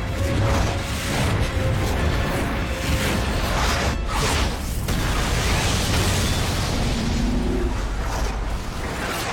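A loud, roaring explosion in a film scene set in the Matrix world, its hot blast sending the character Xiaobai flying toward Sister Cui; a dense rush of blast noise and whooshing that stays intense for several seconds, with a sharp crack midway and no voices.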